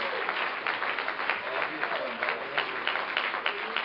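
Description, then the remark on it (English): An audience at a church service applauds steadily as a hand clap of praise to the Lord, a dense patter of many hands clapping at an even level throughout, with faint voices mixed into the clapping. “Give the Lord a hand clap of praise, why don't you?”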